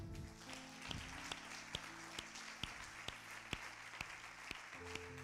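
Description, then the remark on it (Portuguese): An audience applauds Christ during a sermon in a steady wash of clapping, punctuated by sharper rhythmic claps, with low sustained musical tones underneath throughout. “Aplauda a Cristo porque Ele é bueno.”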